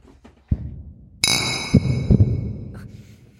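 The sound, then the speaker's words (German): Glasses clink together once in a toast, giving off a bright ringing tone that lingers and slowly fades, with a few soft knocks and thuds around it. “Prost. Prost.”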